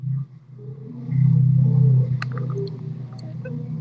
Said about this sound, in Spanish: ¿Escuchas eso? ¿Y qué fue eso? Un motor. Ay, qué potente. Lo siento, lo siento, gente. me distrajo por eso.